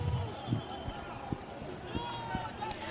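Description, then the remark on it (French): Hurried running footsteps and scattered thuds amid a noisy outdoor crowd, as people rush past during a police charge at a violent riot outside the Banque de France, with muffled voices in the background. “Il y a une charge à l'instant des bah policiers.”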